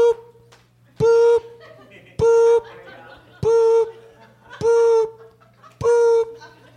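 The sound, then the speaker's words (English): A voice imitates a truck's reversing beeps: five loud, steady, evenly spaced tones, each held briefly, over faint background noise. “Yep, that's the sound of the truck backing up with my shit.”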